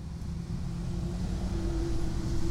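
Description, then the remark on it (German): Traffic on the A3 motorway heard through an open window: a continuous low, broad roar of passing cars with a steady hum on top, swelling slightly louder toward the end, with no voices. “Ich mache nochmal Fenster auf und ihr könnt nochmal die mächtige A3 hören.”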